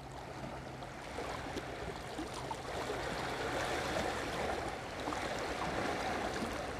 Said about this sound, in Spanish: Mientras tanto, el ir y venir de las olas hace que la cercanía sea lo que necesito.